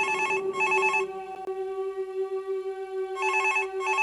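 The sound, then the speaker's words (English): A telephone rings with a trilling electronic bell in two bursts, pausing briefly between them over a steady tone, clear with no voices. “Oh, it's the aerial phone. The aerial nymph phone.”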